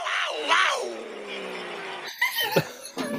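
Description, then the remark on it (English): A person imitates a cat's meow: one long, drawn-out, wavering cry lasting about two seconds, followed by a few short, breathy vocal bursts. “I was do the cat noise and then this is the me.”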